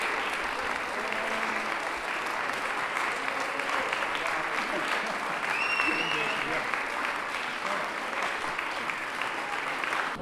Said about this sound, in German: das Orchester und die Schauspieler und Schauspielerinnen werden mit stehenden Ovationen beklatscht, applaudierenderweise. Das Publikum scheint vollauf zufrieden, auch mit dem alternativen Ende dieser Oper.